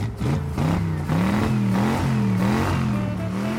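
A rally car engine revs hard, its pitch rising and dipping in repeated surges over a steady loud roar, with no voices present.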